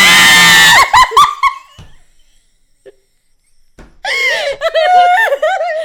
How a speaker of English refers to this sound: we're gonna have to edit out so many screams.